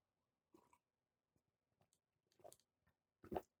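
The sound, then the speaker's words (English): Quiet mouth sounds of someone sipping coffee, a few soft slurps and swallows spread out, ending with a louder gulp. No talking. “And this coffee isn't really working either. So let me pause while I have another sip.”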